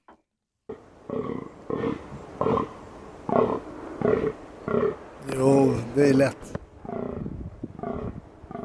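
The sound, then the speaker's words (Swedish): Rutting fallow deer bucks give a steady series of deep, belching groans, roughly one per second, loud, while a person briefly speaks over them partway through. “ja, nej det är inga apor utan det är brunstiga dovhjortar.”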